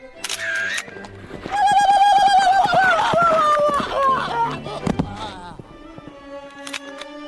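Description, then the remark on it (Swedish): Horses galloping, with rapid hoofbeats pounding under a loud, wavering neigh that rises and falls near the middle. Busy, with a few sharp clicks toward the end. “Svimmar på hästar.”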